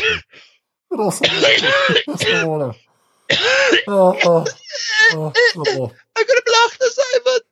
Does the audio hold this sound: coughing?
yes